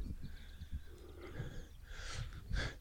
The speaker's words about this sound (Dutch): Wat, wat, wat, hoor jij nou allemaal? Ik hoor daar een mees. Ik hoor daar een tureluur. Ik hoor daar eenden. Krakken eendjes.